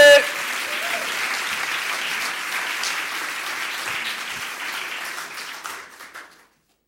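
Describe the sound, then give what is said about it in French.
An audience applauds with dense, steady clapping that holds at an even, fairly loud level for about six seconds, then fades out quickly. “Et vous pouvez reprendre les applaudissements encore plus forts”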